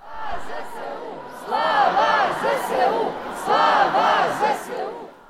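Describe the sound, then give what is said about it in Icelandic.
A protest crowd in Warsaw, Poland, shouts together in loud, rhythmic chant-like bursts, with two strong surges of massed voices around the middle and end over a steady roar. The protesters demand more air defence for Ukraine from the West, as Joe Biden arrives in the city. “öskrar mannfjöldin á sömu mótmælum og heyrðist frá í upphafi þessa pistils”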